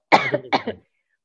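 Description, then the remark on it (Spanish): A short burst of coughing and throat clearing from a dry throat, fairly loud, in two quick clusters over less than a second, followed by silence. No speech. “Se me ha quedado la garganta seca y me da la tos, lo siento.”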